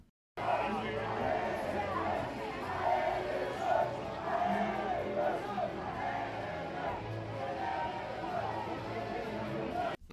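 A football crowd cheers and chants without a break, a steady, dense roar of many voices with swelling shouts rising and falling, and no single voice standing out.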